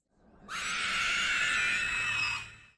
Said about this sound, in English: However, this terrifying sound actually has a very humble origin. Sound technicians created the iconic cry by rubbing two plastic cups together and then distorting the sound that it produced.